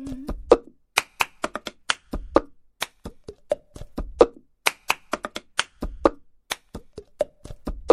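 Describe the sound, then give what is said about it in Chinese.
A steady, syncopated pattern of cups being tapped and slapped on a surface, mixed with sharp hand claps, repeating a quick rhythmic phrase over and over without any voice. It is a film's audition routine by the Barden Bellas' lead singer, done with cups, clapping and singing and no instruments. “这个是巴顿贝拉的主唱所唱的，考试的时候所唱的一首歌，全部拿杯子和拍手还有唱歌同时完成的一首歌，对协调性的要求非常之高。”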